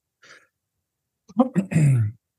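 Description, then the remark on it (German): A fairly loud throat clearing: a couple of rough, guttural bursts ending in a longer voiced rasp, preceded by a faint quick breath, with no talking. “kurz räuspern, Entschuldigung bitte.”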